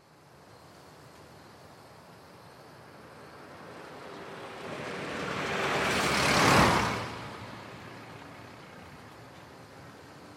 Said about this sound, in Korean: 발밑 바로 아래 터널에서 자동차 한 대가 마치 후폭풍에 날려온 것처럼 쌩 튀어나오더니 눈 깜짝할 사이에 멀어져 갔다.